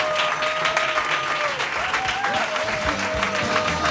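Loud, dense audience applause fills all four seconds, many hands clapping in a steady roar, with a thin high tone that wavers and bends riding over the clapping.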